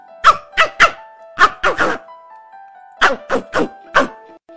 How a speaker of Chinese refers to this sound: 猎狗汪汪汪的叫着，鼻子顶在小鸭身上，露出尖牙。